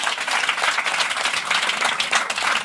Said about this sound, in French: Et donc, vous allez faire partie de la grande famille des résidents de Full Sentimental. et ça, ça s'applaudit.